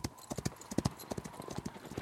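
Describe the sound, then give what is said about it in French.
The hooves of a saddled horse, ridden by an armored rider setting out from a palace, clip-clop in a quick, steady rhythm, each strike sharp, with faint background noise between the beats. “Ainsi, prêt pour le combat, il se rendit à l'écurie, fit sceller son cheval favori, grimpa sur son dos et s'élança hors du palais.”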